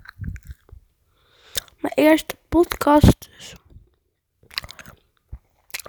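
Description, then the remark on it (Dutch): Wet chewing of gum balls with soft smacks and crunchy bites, interrupted by brief speech, with short pauses between bursts of mouth noise. “doe ik gewoon, mijn ik aan het kauwen en dan doe ik mijn tong verkeerd of zo.”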